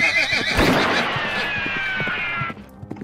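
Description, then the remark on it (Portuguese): An agitated horse neighs loudly, a long shrill whinny lasting a couple of seconds, with hoof clops thudding underneath before it fades to a few quieter steps. “Ih, rapaz, peraí, peraí que o cavalo tá meio bravo aqui.”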